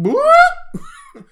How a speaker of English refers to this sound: That's the alarm.